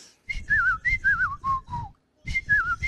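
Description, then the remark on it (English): Someone whistles an imitation of a chirping bird: a run of short, warbling high notes that slide downward, a brief pause, then the same trilling pattern starting again. “I love the sound of a chirping bird.”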